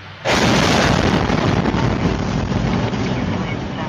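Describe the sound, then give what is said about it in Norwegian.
A rocket strikes a street about 50 meters ahead of a car driving down it, in an air strike on a residential area of Chernihiv, hitting with a sudden, heavy boom, followed by a loud, sustained roar of rumbling noise that barely fades over the next few seconds. “Og der smeller det altså en rakett bare et par ja, 50 meter foran ham.”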